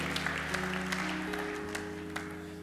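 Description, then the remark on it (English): A church audience stands and applauds steadily, a dense wash of clapping from many hands over sustained keyboard chords that hold underneath throughout, with no voices rising above it. “Come on, give them a big hand.”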